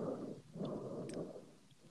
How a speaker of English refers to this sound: I can hear him like taking some deep ass breaths and breathing into the microphone.